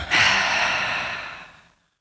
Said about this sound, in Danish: Så ind igennem næsen. Og ud igennem munden.